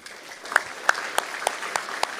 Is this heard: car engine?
no